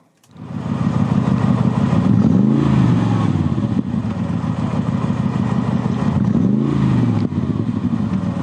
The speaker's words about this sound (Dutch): Ja, het beste AMG-geluid. Eh, kijk, je hebt het beste, je hebt het mooiste, je hebt het geraffineerdste. Maar ik vind nog steeds het beste AMG-geluid gewoon van de, A, de G55 AMG-compressor.